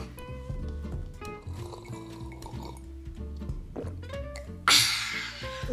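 Slurping tap water from a glass while trying to drink it in one go: wet, gurgling liquid sounds bubble along unevenly, then a sudden loud, hissing slurp bursts in near the end and trails off. No one speaks.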